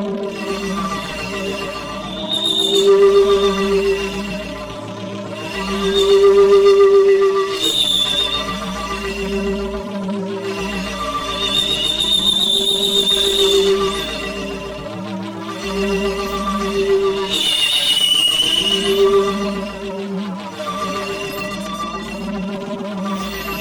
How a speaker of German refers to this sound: Der Lautsprecher. Minus zwei Minuten und wieder ein Sirenenton.